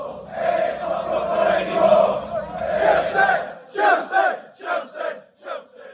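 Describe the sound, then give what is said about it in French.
A large crowd of English club football supporters roars and chants in protest at the announcement of the creation of the Super League, a dense wash of voices that breaks into rhythmic, shouted chant bursts toward the end. “On vient d'entendre là dans cet extrait les, supporters de clubs anglais manifester leur mécontentement suite à l'annonce de la création de la Super League.”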